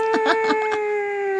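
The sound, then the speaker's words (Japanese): A man, a professor, imitates a deer's mating call with a single sustained, high, whistling tone held for over a second, steady and fairly loud, with faint background murmurs at the start. “で、こう鹿の鳴き声。”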